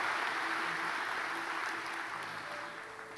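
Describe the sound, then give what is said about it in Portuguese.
An audience applauding the Lord during worship, a dense steady wash of many hands clapping that stays loud throughout and eases off slightly toward the end, with no one speaking over it. “Aplauda o Senhor. Enquanto você aplaude, diga: Eu quero o teu fogo na minha vida, Senhor.”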